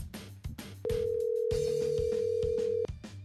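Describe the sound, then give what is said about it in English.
A single steady ringback tone from an outgoing phone call placed on the 105.7 FANS radio station sounds for about two seconds, loud and clear, over a rhythmic music bed with thumping beats. “All right, we are calling. You can hear it ringing.”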